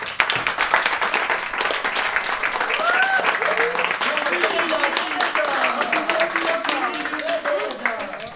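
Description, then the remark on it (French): A dense, steady burst of applause from a school audience at a collège, many hands clapping at once for several seconds, with faint murmured voices and cheering rising through the clapping. “Nous sommes en présence d'un public, donc ça mérite des applaudissements.”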